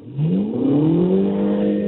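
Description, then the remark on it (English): A car engine in sport mode revs up loudly, its pitch climbing steadily over the first second before holding at a high, throaty drone, with no voices. “Yeah, and, and you know when you when you downshift, you get the little burble of the exhaust, and you know the downshift um, mat, uh, rev matching”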